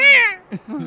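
A single seagull cry rings out fairly loud by the sea at Oostduinkerke, a bright, sliding call that fades downward, followed by a few soft, low murmurs.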